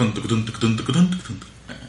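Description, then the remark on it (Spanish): A voice imitates a horse galloping with a quick, rhythmic run of clopping vocal bursts, fairly loud, sustained for a couple of seconds with no other sounds around it. “dije que te gustaba mi, mi efecto sonido de caballo.”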